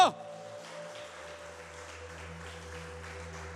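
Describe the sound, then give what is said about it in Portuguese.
A crowd claps steadily and continuously, applauding Jesus loudly, a dense wash of applause blended with sustained, droning keyboard chords holding underneath; no one speaks. “Vamos aplaudir Jesus bem alto.”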